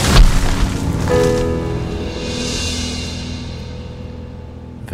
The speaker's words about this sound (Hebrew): ואחרי השריקה נשמע פתאום בום! ואיתו גם הטראח, כמו מירי תותח כשהארז נשבר וקורס לאדמה.